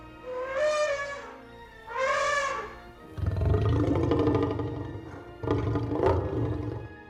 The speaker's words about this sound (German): Ich weiß zum Beispiel, dass es bei dem T-Rex in Jurassic Park Laute von Elefanten und von Löwen sind, die irgendwie kombiniert worden sind.